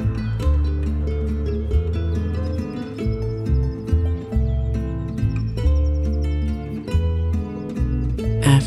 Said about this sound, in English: After a few moments, your ears are treated to the delightful sounds of a bird singing. Moments later, other birds begin chirping, letting their songs ring through the countryside.